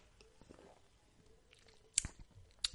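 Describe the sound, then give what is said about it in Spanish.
Someone takes a quiet first sip of beer, with soft wet mouth noises and two sharp lip-smacking clicks toward the end; no one speaks. “Bueno, primer sorbo. A vuestra salud.”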